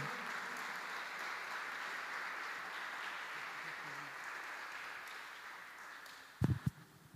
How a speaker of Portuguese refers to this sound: aplaudindo ao Senhor, amém?